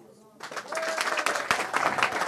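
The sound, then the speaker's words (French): A burst of audience applause starts abruptly after a brief voiced moment, then holds as a dense, steady wash of many hands clapping, loud and sustained to the end, as the audience judges a one-minute project pitch. “Bon, alors, est-ce que, vous, que vous trouvez qu'il a réussi ce challenge qui était de vous vendre euh, ce projet en une minute C'est vos applaudissements qui vont en permettre d'en juger.”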